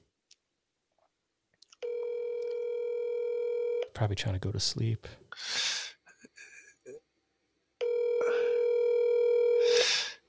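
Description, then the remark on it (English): Two long, steady telephone ringing tones sound on an open line of an outgoing call, each lasting about two seconds, with a person speaking briefly in the pause between them. “It's ringing.”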